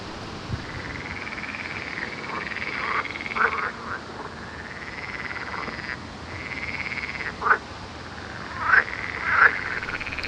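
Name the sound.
frogs croaking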